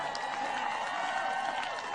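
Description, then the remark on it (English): An audience at a political speech about the governor recall vote applauds after mention of keeping Gavin Newsom as governor, a steady, dense wash of clapping at an even, moderate loudness for the full two seconds, with faint crowd murmur underneath. “really, you're going to applaud for that?”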